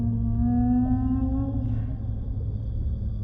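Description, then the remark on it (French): A whale to the right gives a low, drawn-out moaning call, steady and tonal with faint overtones, sounding over a continuous deep rumble of water. No one speaks. “Oh waouh Regarde Il y a une baleine là sur notre droite je n'en ai jamais vu d'aussi près.”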